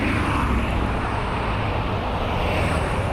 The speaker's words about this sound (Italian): In auto ci avviciniamo al quartiere Stadera e a uno dei complessi